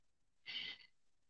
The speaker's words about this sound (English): sorry, our cat's coughing up right now. He has a hairball, the poor thing.